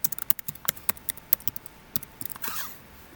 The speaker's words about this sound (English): I really feel like the typing is gonna come up, but I ain't even gonna, I ain't even tripping.